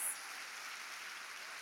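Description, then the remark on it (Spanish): An audience applauds in recognition of a team of women servers, in a dense, steady wash of clapping that holds at an even, fairly soft level throughout, with no voices over it. “Vamos a darle un aplauso en reconocimiento a todas ellas.”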